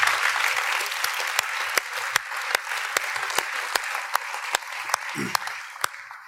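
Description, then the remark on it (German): A church audience at Church GVC Fraufeld claps steadily for several seconds, a dense wash of hand claps with a few sharper individual claps standing out, at an even level throughout. “Wir geben dir nochmal einen Applaus und du darfst wieder am Platz gehen.”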